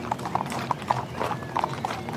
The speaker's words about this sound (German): Ist das Pferd schlau genug, dass es nicht vom Weg runterläuft? Muss halt ein bisschen moven mit links und rechts.